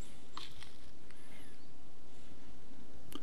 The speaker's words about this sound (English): If you heard that whistle, that was a bird.